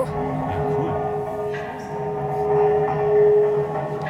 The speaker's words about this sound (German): hat hier Tunnelgeräusche aufgenommen und welche erzeugt und das zu einer solchen Komposition zusammengeschnitten